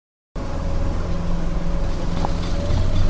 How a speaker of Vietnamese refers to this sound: Đây là tiếng động từ hàng chục chiếc xe tải chở vật liệu đá xi măng trên con đường dẫn vào xã Thanh Nghị, huyện Thanh Liêm, tỉnh Hà Nam.